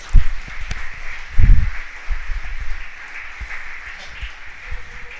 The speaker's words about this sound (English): Give an applause to the Lord for this.